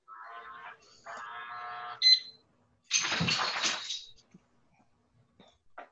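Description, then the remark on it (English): An automatic front door lock beeps: two sustained electronic tones, then a short higher chirp, followed by a loud whirring buzz of the lock motor and a few faint clicks. No one speaks. The lock engages by itself as the door is closed behind someone leaving. “The front door just locked.”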